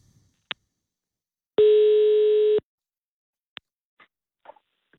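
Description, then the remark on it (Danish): A telephone line tone sounds once, a steady buzzing beep lasting about a second, framed by sharp line clicks and faint crackles before a call from a radio studio in Copenhagen connects. No one speaks. “Det er kun fordi, at øh, telefonerne i huset er udfordret i dag.”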